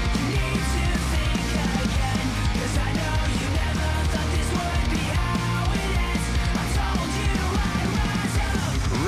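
A loud new pop-punk metal single plays throughout, with dense distorted guitars and pounding drums filling the mix at a steady, driving pace, and what sounds like shouted vocals riding on top.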